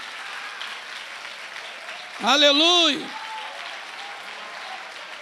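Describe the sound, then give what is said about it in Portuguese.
An audience applauds the Lord steadily, a dense, even patter of clapping lasting the whole time, while one voice briefly calls out loudly over it partway through. “Pode aplaudir o Senhor se você quiser, mas resolva.”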